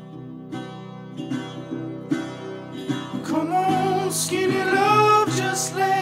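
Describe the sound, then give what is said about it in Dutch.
A lo-fi indie folk song with poor recording quality plays alone: steady strummed acoustic guitar chords, then a sustained singing voice enters and the music swells louder toward the end. “Nou, wat je hier hoort is dus die, uh, die brakke sound.”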